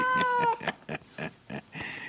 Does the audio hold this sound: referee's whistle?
no